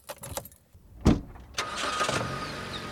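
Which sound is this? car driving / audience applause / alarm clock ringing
car driving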